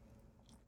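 A dog gnaws on a bone, producing soft, irregular crunching and scraping sounds over a low rumbling background, with a sharper crunch at the very end.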